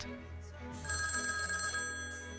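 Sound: telephone ringing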